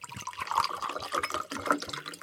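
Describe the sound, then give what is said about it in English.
Liquid pours steadily into a glass, a continuous gurgling splash with a faintly rising pitch as it fills, heard alone without any talking. “she would listen and smile, pouring him another drink.”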